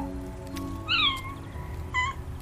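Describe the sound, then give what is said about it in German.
A white kitten meows twice, high and thin: a longer wavering cry, a short pause, then a brief second mew, as a firefighter climbs a turntable ladder and carefully grabs it. Both are clear over a low, steady background hum, with no one speaking. “Eine Feuerwehrfrau klettert hinauf und schnappt sich dann vorsichtig das weiße Kätzchen.”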